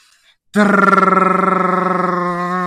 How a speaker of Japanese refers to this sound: あ、待って、今、ドラムロールが、あ、ゲップ、あ、待って、もうとんでもねえな、今。発表する間際で私、今、ゲップ言いましたよ。